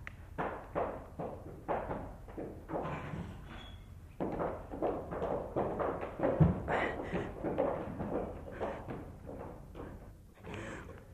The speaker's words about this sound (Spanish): Un momento. Voy a abrir la puerta.